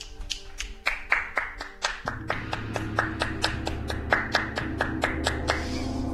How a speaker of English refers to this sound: I'm going to ask Bob to play the gong again.